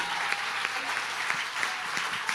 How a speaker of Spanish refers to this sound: Si le va a dar un aplauso.